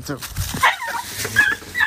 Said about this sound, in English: Freaking dog, get out of here dog just started screaming.